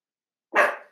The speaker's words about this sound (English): I have a Pomeranian and he, any time a car goes by, he barks. It's so annoying.